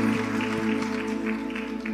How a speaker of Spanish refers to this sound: Una ofrenda de palmas. Si vamos a aplaudir, aplauda a Cristo, aplauda a Cristo. La gloria para Cristo, mi hermano.